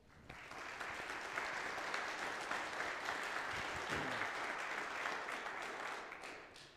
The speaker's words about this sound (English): I think we owe them a round of applause.